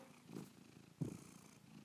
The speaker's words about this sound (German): Okay, sie schnurrt einfach. Ich denke, schnurren bedeutet so ein bisschen Ja bei den Fragen, bei die ich ihr stelle.